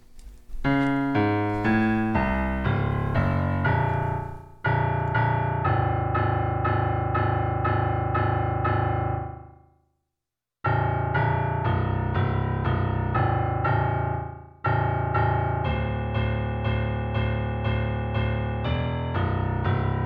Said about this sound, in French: Ben, on va justement aller entendre un extrait d'une interaction musicale, justement, où le système que tu as créé répond de façon autonome à des notes qui lui sont envoyées.